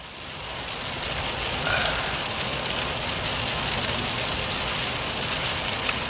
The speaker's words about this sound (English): starting to rain pretty good now.